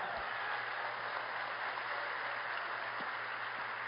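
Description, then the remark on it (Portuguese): An audience applauds the Lord in a steady, dense wash of clapping that holds an even level throughout, with no voices standing out above it. “Pode aplaudir o Senhor.”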